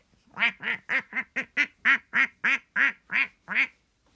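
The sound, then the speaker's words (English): A duck quacks about a dozen times in a quick, steady series, each call short, nasal and clear, with no other sounds around it. “And you know what else starts with D? Daddy. Daddy starts with D. Duck.”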